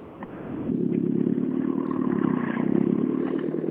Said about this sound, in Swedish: det är inte alltid de där höga varven är effektiva heller